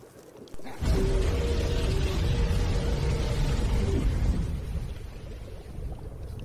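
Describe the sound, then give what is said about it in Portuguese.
A dragon's roar bursts in suddenly as a character falling through the air transforms into a dragon. It is loud and deep, holding a low moaning tone over heavy rumbling for about three seconds before trailing off into a softer growl-like rumble. “E aí ele, você escuta o mais uma vez o urro do dragão.”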